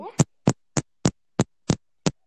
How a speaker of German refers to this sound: Du klopfst einfach auf dein Mikrofon. Schau, das kann ich auch.